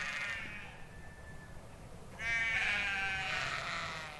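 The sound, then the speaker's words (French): Sheep bleat twice from about a hundred metres away, in morning mist near the Château de Beauvorde, each call a long wavering cry, the second one louder and fuller, over a steady low rumble of outdoor background noise. “Les moutons belles à une centaine de mètres.”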